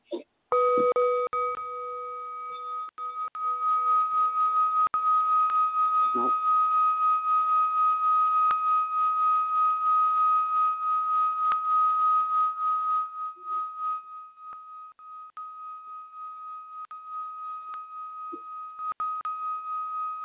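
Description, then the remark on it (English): Two Tibetan singing bowls ring out in a sustained, shimmering drone, one steady high tone humming continuously with a lower tone that fades early, punctuated by a few soft strikes. “Guys, are you even no. hearing these bowls right now?”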